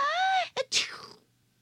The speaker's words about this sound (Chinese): 艾莎又开始打喷嚏了。安娜虽然骑着姐姐蹬的自行车非常开心，可她也开始担心艾莎是不是感冒了。